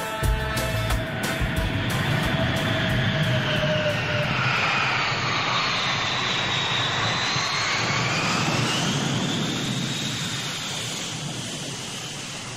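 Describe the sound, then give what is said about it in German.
The engines of a jumbo jet airliner that has just landed at an airport roar loud and steady, a broad rushing drone with a high whine that rises and falls, easing off slightly toward the end. No one speaks. “Der Vater zeigte auf ein großes Flugzeug. Dann sagte er zu seinem Kind, guck mal da, der Jumbojet ist gelandet.”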